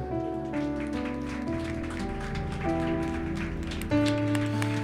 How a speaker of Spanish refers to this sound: Yo te invito a que le demos un aplauso de adoración a Él.